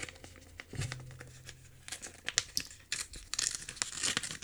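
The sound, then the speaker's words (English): An envelope is torn open: a run of irregular, crisp paper rips and crinkles, with bursts of rustling that grow busier toward the end. No one speaks. “So I'm gonna go ahead and open yeah, this yeah. open right. this envelope up.”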